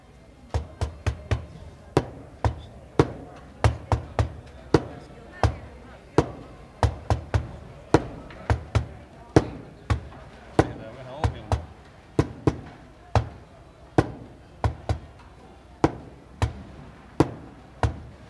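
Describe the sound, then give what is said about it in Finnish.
Hand postmark stamps at Helsinki's main post office, recorded in 1966, thump down again and again in a quick, uneven rhythm, sharp wooden-sounding knocks in clusters with short pauses between, over a low murmur of background voices. “Siinä oli postin leimauksen ääntä. Se oli aidolla käsin, käsileimaimilla tehty vuonna 1966 äänitetty Helsingin pääpostista.”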